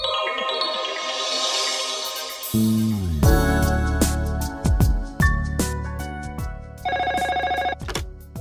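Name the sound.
telephone ringing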